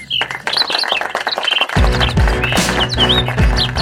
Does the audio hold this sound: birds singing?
yes